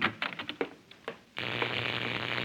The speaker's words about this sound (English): Wait a minute, Jack. Jack, what's that? Oh, next door, the Colman's electric fence. Every time I come out of the house, it goes on.